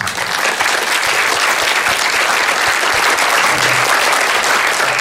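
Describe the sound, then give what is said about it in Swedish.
A crowd applauds steadily and loudly, a dense wash of many hands clapping at once that holds at full strength for the whole stretch without fading. “Stort tack och en stor applåd.”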